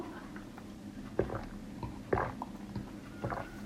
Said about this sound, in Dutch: En ik ga eerst even een slokje water pakken voordat ik dat doe.